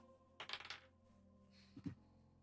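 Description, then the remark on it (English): Dice clatter across a hard tabletop in a quick rattling burst, followed a moment later by a final short knock as they settle, the roll landing a natural one. Fairly quiet, with no talking. “Uh, Natural one on the dice roll.”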